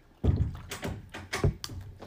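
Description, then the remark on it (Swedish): A door that had not shut properly thuds closed, followed by several sharp clicks and knocks as its lock is turned and rattled, spread irregularly over a couple of seconds. “Nej men nu stängde jag väl inte dörren Jag får skruva lite på den.”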